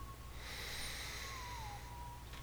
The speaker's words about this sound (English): breathing down and out, and then pushing in and up to put it out.